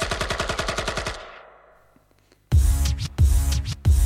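A French rap track ends on a rapid, machine-gun-like burst of stabs that rings out and fades into near silence, then a loud new piece of music abruptly kicks in.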